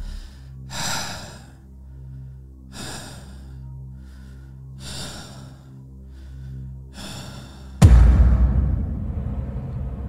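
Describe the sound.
A caller's slow, heavy breathing over a quiet phone line, four breaths spaced about two seconds apart above a low steady hum, then a sudden loud burst of crackling noise near the end.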